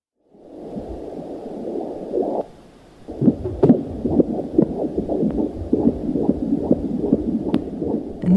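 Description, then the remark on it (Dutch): The heartbeat of an embryo in the mother's womb picked up by Doppler, a rapid, steady whooshing pulse over a muffled rumble, briefly dropping out near the start before resuming its quick rhythm. “Je hoort het hartje van een embryo hier kloppen.”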